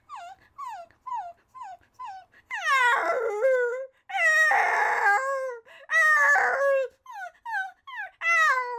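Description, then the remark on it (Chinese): A person imitates their family's former pet chihuahua barking: a run of short, high-pitched yips, then several longer, loud, whiny yelps, then more quick yips. There's no ordinary speech. “好，我要模仿我们家狗的声音， 柴犬吗？”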